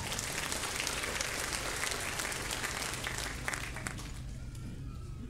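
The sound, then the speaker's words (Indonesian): An audience bursts into sustained applause for God, dense clapping for several seconds before easing slightly toward the end, with faint voices mixed in. “Setuju berikan tepuk tangan buat Allah kita.”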